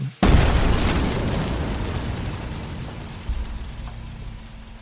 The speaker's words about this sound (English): There is a clinking and a clanking as this object rolls down and cracks on the grate above the main furnace. There is a hissing and an explosion.